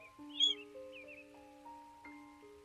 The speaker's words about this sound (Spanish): Se entrelaza el sonido de los pájaros